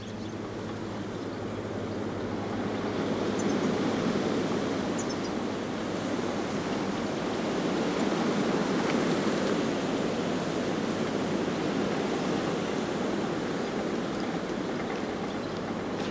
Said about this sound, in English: We've got a sheltered spot here you can hear the wind roaring in the trees.